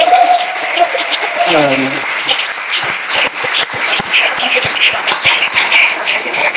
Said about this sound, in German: das heißt, ja, dürft gerne klatschen.